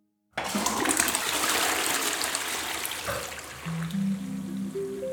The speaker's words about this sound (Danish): Og det vand, som din krop ikke har brug for, eller som er blevet filtreret fra i dine nyrer, ja, det tisses bare ud i toilettet.